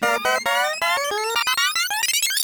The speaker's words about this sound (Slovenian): Ta aplauz boste slišali, če boste pravilno odgovarjali v naši igri inicijalk.